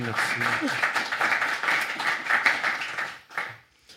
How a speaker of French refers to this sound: Bravo, on applaudit ça aussi, s'il vous plaît.